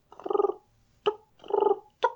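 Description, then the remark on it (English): Turkey purrs and clucks made by a turkey hunter on a mouth call: a soft rolling purr followed by one sharp cluck, repeated twice in a steady pattern, fairly quiet, with no talking. “just did a little purrs and clucks, scratched in the leaves a little bit.”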